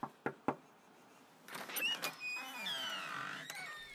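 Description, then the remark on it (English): A few sharp clicks of a latch, then the front door of a two-story colonial-looking home, the Village Summit community resource in Lansing's Fabulous Acres neighborhood, swings open with a drawn-out squeaky creak and some rustling, fairly loud. “opens the door.”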